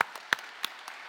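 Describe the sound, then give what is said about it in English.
A handful of scattered, sharp claps from an audience, sparse and irregular rather than a full round of applause, fairly faint with no voices. “Let's give him another applause.”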